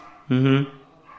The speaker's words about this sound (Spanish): Mira, tenemos un fondo ahorita de perritos.